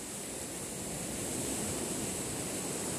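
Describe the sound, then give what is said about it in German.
A steady, dense, loud roar of ocean surf washing against rocks, with no distinct individual crashes standing out and no voices present. “Sie schlägt ungetüm gegen die Felsen, bahnt sich ihren Weg, Welle um Welle, in die Tiefe des Gesteins und vielleicht auch in die Tiefe meines Herzens und Bewusstseins.”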